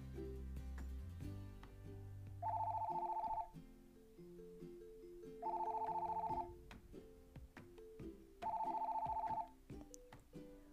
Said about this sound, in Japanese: コールというのはこれです。これが1コール、1コールです。3コールというのはこれが3回鳴るという意味です。